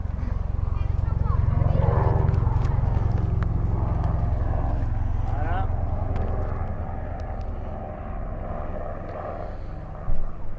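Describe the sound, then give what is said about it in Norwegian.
A helicopter arrives and lands on Skogsvegen: a loud, steady rotor-like drone with low rhythmic thumping fills the whole recording, gradually easing off as the aircraft settles, with people talking faintly underneath. “Helikopteret parkerer på Skogsvegen.”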